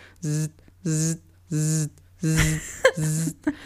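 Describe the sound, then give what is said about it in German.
A voice imitates a phone vibrating from incoming WhatsApp messages, a humming, harmonic drone repeating in five evenly spaced bursts of about half a second each, fairly loud, with a brief breathy noise between the last ones. “Und am Ende, als ich fertig war und aus dem Studio gegangen bin, hat die ganze Zeit mein Handy vibriert, als wenn ich einen Anruf kriegen würde.”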